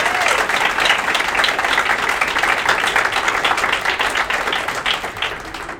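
A live audience at the National Folk Festival in Canberra applauds a singer, dense clapping from many hands filling the space at a fairly loud, sustained level before beginning to taper slightly toward the end.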